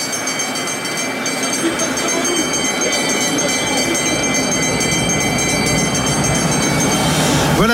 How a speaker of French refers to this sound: la cloche pour saluer les coureurs dans leur dernier tour de ces Champs-Élysées. Ils passent à l'instant même euh, le peloton sur la ligne d'arrivée de ce Tour de France.